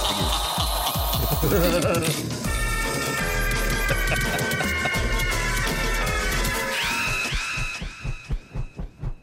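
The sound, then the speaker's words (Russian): A short, upbeat new intro jingle for the radio segment 'Narodny Prodyuser' (People's Producer) plays loud and full with a driving beat and bright melodic lines, ending in a few deep pulsing throbs that fade out. No one speaks. “Кстати, шапка новая.”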